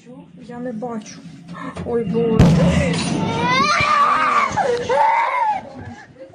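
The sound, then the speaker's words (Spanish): A baby inside a house wails in long, strained cries as planes attack around the house, broken by a sudden loud crash or blast partway through, after which the distressed crying continues before trailing off. “para que escuchen el llanto tan triste y tan doloroso que se escucha de un bebé que está dentro precisamente de, su casa cuando empiezan a atacar los aviones alrededor de su casa.”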